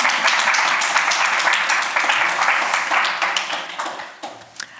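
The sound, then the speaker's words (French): A crowd applauds with dense, steady clapping that holds loud for a few seconds, then thins out and fades as individual claps become audible near the end. “On peut peut-être applaudir Martin.”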